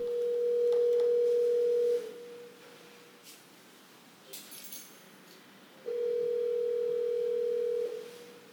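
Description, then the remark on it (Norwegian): A steady telephone tone rings out in two long, loud bursts of about two seconds each, separated by a quiet gap with faint clicks and handling noises. “Vi skal straks avslutte, men vi må bare ta én telefonsamtale helt til slutt.”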